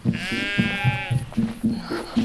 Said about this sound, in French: Les filles là Mais qu'est-ce qu'elles ont ces brebis Oh, c'est pas vrai. Comment je vais faire C'est par le bas. Elles sont ingouvernables.